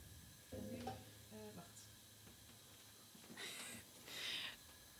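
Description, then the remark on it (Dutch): Butter sizzles in a hot pan on the heat in two short, bright hissing bursts near the end, following a brief stretch of low voice sounds and faint background noise. “Je mag het zo meteen in de pan eh, met de boter eh, doen die ik nu eh, op het vuur heb Dus heel kort koken en meteen in een hete, hete pan met boter.”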